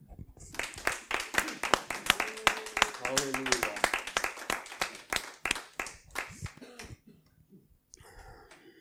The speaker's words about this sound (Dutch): Laten we Jezus een applaus geven.